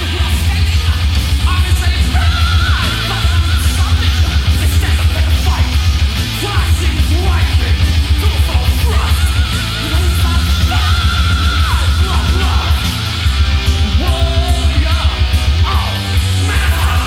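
A loud, dense heavy metal song with distorted guitars, pounding drums and yelled, shouted vocals running throughout at a steady, driving pace.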